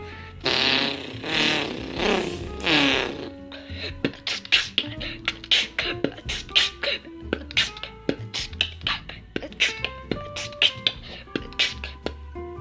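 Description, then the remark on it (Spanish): A voice imitates a motorcycle revving, a buzzing, rising and falling engine drone for about three seconds, followed by a run of sharp, rhythmic mouth clicks and beatbox-style percussion. “Eh, una moto.”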